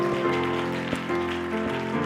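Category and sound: crowd, audience clapping hands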